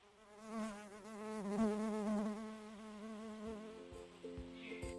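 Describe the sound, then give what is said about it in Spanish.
A bee, Rilda, buzzes steadily for about five seconds, its droning pitch wavering up and down, with a few faint clicks near the end and no voices. “Y así Rilda la abeja pudo llegar con bien a su casa”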